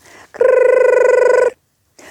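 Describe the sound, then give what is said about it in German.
A grandmother's mobile phone, just back in her hand, rings once with a loud, fluttering electronic trill lasting about a second, clear, with brief soft noise just before and after. “Und schließlich hatte sie ihr Handy wieder in der Hand. Ah, strahlend schaute sie uns an. Und dann klingelte es wieder.”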